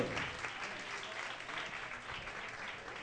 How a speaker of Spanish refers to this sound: Un aplauso para … en los platos y yo … en la guitarra y el beatbox. Por favor.